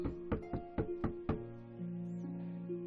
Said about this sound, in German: Wir fragen mal beim Pablo Picasso nach. Mhm. Ihr klopft also an der Tür.